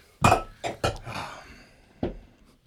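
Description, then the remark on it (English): Glasses clinking together in a toast: a few bright, ringing taps in quick succession, then a pause and one last clink. No one speaks. “Clink, clink, clink.”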